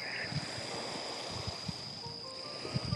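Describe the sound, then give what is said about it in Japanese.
Gentle, calm seaside waves wash steadily with a breezy hiss on the coast at Hayama, Japan, on a cool, overcast day just after sunset, low wind buffets thumping against the microphone now and then, and a faint steady high whine underneath. No one speaks. “えっと、今日は特に、葉山は曇、一日曇っていて、日が当たらずに、えー、涼しかったんですが海辺に来たらさらに涼しくて”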